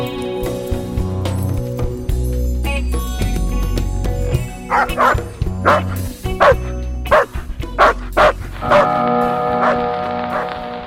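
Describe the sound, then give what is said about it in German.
A dog barks repeatedly in short, punchy bursts, fairly loud, over a steady low hum and some tonal background; no one speaks. “Er macht nicht Kleff, er macht nur Bau.”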